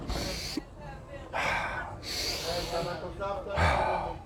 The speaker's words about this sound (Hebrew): ממלא את הריאות אוויר, נכון?